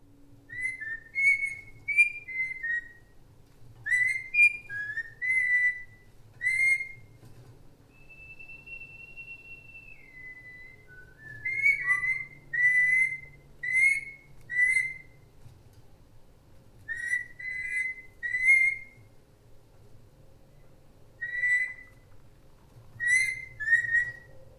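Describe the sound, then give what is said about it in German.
A parrot named Ingmar whistles a jazz tune in bright, choppy phrases of quick notes, separated by short pauses, with one long sliding note midway, over a faint low background hum. “Eine Katze, die nach dem Pianisten Thelonious Monk benannt ist, und ein Papagei namens Ingmar, der Jazz pfeift.”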